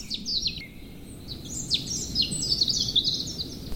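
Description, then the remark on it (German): Birds sing continuously in a quiet monastery garden outside a church, several high, bright chirping phrases overlapping over a soft, low background rumble. “Ich nehme die Vögel bewusst wahr, aber auch jedes Auto oder Flugzeug in der Ferne.”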